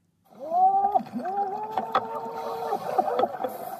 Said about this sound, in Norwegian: Slik høres jubel på innsiden av en dykkermaske ut. En blank, stor, spansk kongelig gullmynt graves fram under et tynt lag av sand og skjell, knappe to meter under havoverflaten, rett utenfor Vero Beach i Florida.